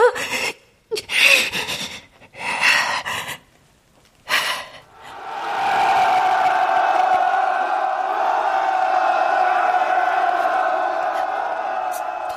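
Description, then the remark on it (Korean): A few sharp, separate shouts burst out, then a large crowd breaks into a loud, sustained roar of massed voices that holds steady to the end, like a rallying battle cry. “전지에 가득 찬 우리의 함성이 세상을 바꾸리라!”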